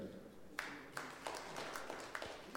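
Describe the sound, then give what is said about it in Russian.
Sparse, scattered handclaps from a small audience of Phystech students asked to clap, a few distinct claps at irregular intervals rather than full applause, fairly faint against room noise. “Что-то как-то тухло, по-моему, в предыдущий раз лучше хлопали.”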